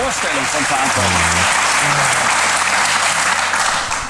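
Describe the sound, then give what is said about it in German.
Steady applause from an audience, a dense wash of many hands clapping that stays loud throughout, with faint voices murmuring underneath. “Da gibt es auch wieder Applaus für.”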